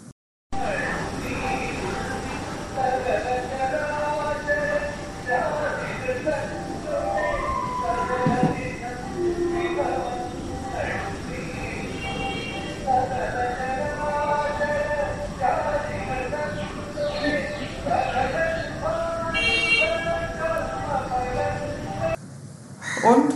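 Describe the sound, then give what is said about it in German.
Indian temple music plays steadily for about twenty seconds, a dense layer of sustained melodic tones and ringing, bell-like highs with voices blended in, fairly loud throughout. “jetzt noch ein bisschen Tempelmusik für dich.”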